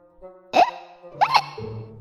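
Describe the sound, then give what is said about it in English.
Two sharp, voiced hiccups about three-quarters of a second apart, fairly loud, over a soft, steady musical hum. They sound like a person performing the hiccups of the character Pete. “Pete still has the hiccups.”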